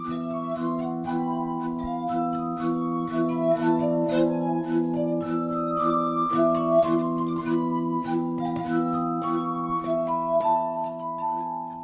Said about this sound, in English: Most people are familiar with the eerie sound that emerges when they rub their finger around the rim of a wine or champagne glass. Now imagine almost 60 of them, ranging from tiny shot glasses to deep goblets, placed in three rows on a sloping table.